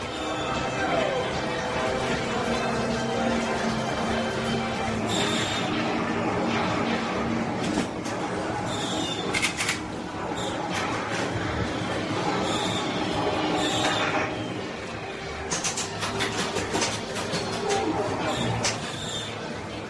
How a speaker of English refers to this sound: It almost is tangible in memory. This is what a classic arcade used to sound like.